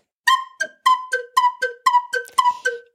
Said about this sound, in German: Also das mit dem Hoch, runter, hoch, runter, also so eine Zickzack-Linie könnte man eventuell auch mit dem Labio machen oder nur mit dem Flötenkopf, indem man den Flötenkopf zackig, ich mache einmal vor, auf und zu macht.